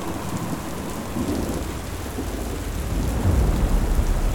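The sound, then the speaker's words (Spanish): A heavy storm with a steady roar of wind and pouring rain, deep rumbling underneath that swells louder toward the end. No voices, just dense, continuous noise. “El viento y la lluvia parecen haberse descontrolado.”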